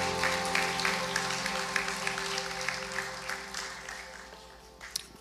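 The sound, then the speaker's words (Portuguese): An audience applauding the Lord, a dense, steady wash of many hands clapping over a sustained keyboard drone, gradually thinning and tapering off toward the end. “Você pode aplaudir ao Senhor mais uma vez?”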